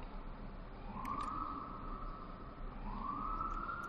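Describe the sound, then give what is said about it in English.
A siren wails over a steady low rumble of city traffic, heard while recording at Studio 7A at the Gramercy Arms, its tone sweeping up twice in long rising glides and holding high, no voices present. “Uh, thanks for tolerating the city sounds in the background.”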